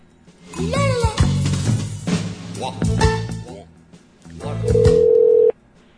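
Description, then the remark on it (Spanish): Over a telephone line, a jumble of chirping tones and short beeps gives way to a steady, loud dial tone that holds for about a second before cutting off, as a call goes unanswered. “Bueno, si contestando no contesta absolutamente nadie, mucho menos un teléfono que no veo.”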